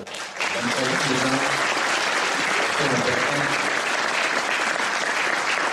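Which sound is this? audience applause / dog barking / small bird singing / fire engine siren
audience applause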